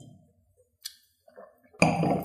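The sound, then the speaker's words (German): Glasses clink together in a toast: a bright ringing tap, then a louder clink with a shimmering, lingering ring over a burst of broad noise. “Ach komm, jetzt müssen wir erst nochmal anstoßen.”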